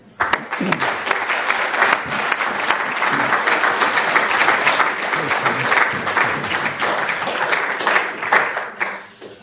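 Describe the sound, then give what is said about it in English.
An audience applauds steadily for several seconds, welcoming Professor Alan Cotton to give an inaugural university lecture titled A Sense of Place, a dense wash of clapping that starts abruptly, holds at an even level, and thins out near the end. “Please join me in welcoming Professor Alan Cotton.”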